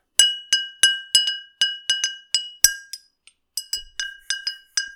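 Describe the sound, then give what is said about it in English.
A glass jar is tapped over and over, producing bright, ringing clinks in a steady rhythm with a short pause partway through. The sound is close and clear, with no voices. “Got a glass jar.”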